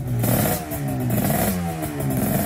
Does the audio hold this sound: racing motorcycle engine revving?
yes